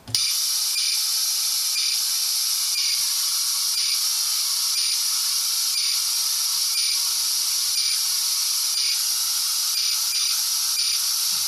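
An M10 radiosonde telemetry signal received around 402 MHz over a radio receiver: loud, steady hiss-like static punctuated by short, regular data bursts roughly once a second, with no voices.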